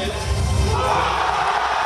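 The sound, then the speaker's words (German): A large crowd cheers and whoops loudly and continuously, a dense wall of shouting voices at a French election party of Macron or Le Pen as the first projections come in, with no pauses or clear individual words. “Sowohl bei Macron als auch bei Le Pen großer Jubel und Begeisterung bei den ersten Hochrechnungen.”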